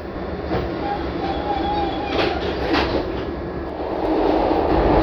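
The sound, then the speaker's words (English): A Blue Line subway train's doors close, then a steady low rumble with a few sharp clunks early on and a thin electric whine, the noise swelling louder toward the end as the train pulls away. “Doors closing.”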